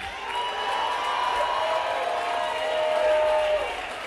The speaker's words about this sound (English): Do I have anybody who's linked arms with somebody and you're doing the work of the kingdom? If that you, jump up and scream.